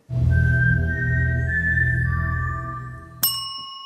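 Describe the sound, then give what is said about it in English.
A short four-note human whistle, the Mockingjay whistle from The Hunger Games film series, a tune owned by Lionsgate: G4, B flat 4 and A4 eighth notes then a D4 half note in G minor, clear and steady over a low humming drone, ending with a bright bell-like ding. “That's the Mockingjay whistle.”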